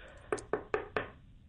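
Four sharp, evenly spaced knocks on a door, fairly loud, in quick succession with no one speaking.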